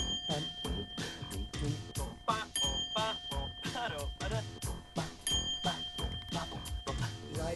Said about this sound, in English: Let's give us a listen. The theme to Ducktales.